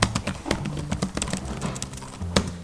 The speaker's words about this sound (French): Entre l'intérieur et l'extérieur, une dizaine de personnes ont pris place au gré de leurs envies l'ordinateur portable sous les yeux. Le silence règne, tout juste couvert par le cliquetis des claviers.